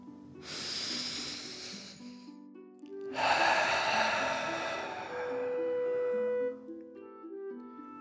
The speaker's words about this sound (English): Breathe in through your nose and then out through your mouth, pretending you are breathing fire. Deep breath in and out.